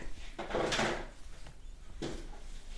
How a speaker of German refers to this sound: Und äh, man hört ihn auch die ganze Zeit im Hintergrund kramen.